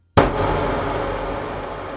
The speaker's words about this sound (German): ein paar Hintergrundgeräusche aufgenommen, indem ich einfach das Mikrofon aufgerissen habe, den Hall komplett aufgerissen habe und einfach nur auf den Tisch gehauen habe. Und jetzt mache ich einmal Hall an, dann hört sich das so an.